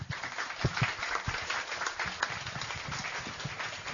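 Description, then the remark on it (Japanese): An audience applauds a book's author at a talk event, a dense, steady patter of many hands clapping that holds at an even level for the whole few seconds, with no voices over it. “大きな拍手どうぞ。”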